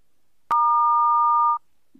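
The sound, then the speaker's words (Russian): A single steady electronic answering machine beep, signalling to leave a message, a flat mid-pitched tone lasting about a second, starting with a sharp click and ending abruptly, followed by silence. “Вас приветствует автоответчик. Оставьте сообщение после звукового сигнала.”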